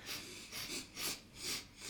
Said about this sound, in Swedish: En övning är att man ska sitta och andas, man håller för ena näsborren med fingret och så ska man sitta och andas så här.